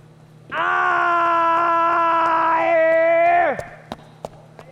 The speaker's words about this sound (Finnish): Kun pääsen portaikossa ensimmäiseen kerrokseen, kuuluu yläkerrasta toisesta kerroksesta armoton huuto ja karjuminen. Lähden juoksemaan kohti yläkertaa. Huuto vain voimistuu.